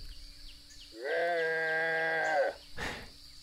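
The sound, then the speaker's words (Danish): A very large antlered animal bellows once in nature in a long, steady, harmonic call lasting about a second and a half, loud, over a thin hum of insects, followed by a brief rustling burst. “For nu brøler det igen.”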